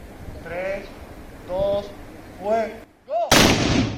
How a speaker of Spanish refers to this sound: en Ceuta es tradicional el cañonazo a las 12 del mediodía desde hace más de tres siglos. En 2021, desde la fortaleza del Acho, en junio, el cañonazo fue en homenaje a Fernando de Leiva.